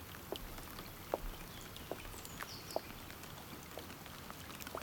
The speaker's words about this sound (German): Der Regen ist ganz warm